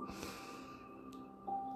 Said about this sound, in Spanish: Ahora respira profundamente por la nariz, llenando completamente de, aire tus pulmones.